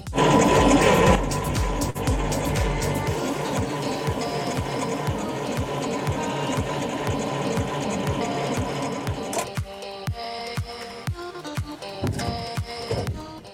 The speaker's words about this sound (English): it sounds like you're having a little bit of trouble with your car battery. Yes, officer, it's dead. I think I need a new one. Ah, I see the problem. Nothing's wrong with your battery. Just turns out that you're actually out of gas.